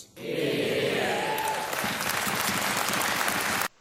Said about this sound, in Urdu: ویسے تو جم چارمرز کے اس بیان کے بعد ہال تالیوں سے گونج اٹھا مگر وہاں پر ایسے افراد بھی موجود تھے جو تالیاں نہیں بجا رہے تھے اور اس بجٹ سے کچھ خاص خوش نہیں تھے